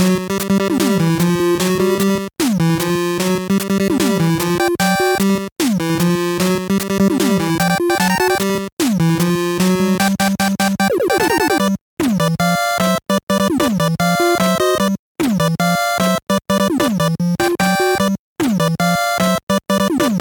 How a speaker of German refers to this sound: mache ich erstmal die Originalversion wieder an auf dem NES. Musik